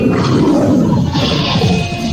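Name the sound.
lion roaring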